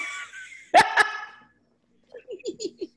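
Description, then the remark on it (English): Squirrels fighting and chattering in a tree: a burst of harsh, raspy calls with two sharp clicks, a brief pause, then a quick run of five short, squeaky chirps in a steady rhythm. “stop it squirrels stop it I'm just gonna have to go out there and tap the tree, tap the bark of the tree, tell them stop, stop, turn them loose, Lord.”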